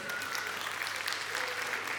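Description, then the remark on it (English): A church audience claps steadily in a dense, even patter of applause that holds at a constant level for the whole two seconds, with no voices standing out. The applause welcomes the church's children's pastor and spouse, who got married the day before. “Give them a clap, you know.”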